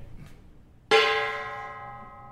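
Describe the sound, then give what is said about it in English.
A traditional Chinese temple gong from the 1880s, probably around 1881 to 1883, is struck once, loud, its bright metallic crash giving way to a shimmering, sustained ring that fades slowly after a quiet moment. “the gong itself is a traditional Chinese temple gong”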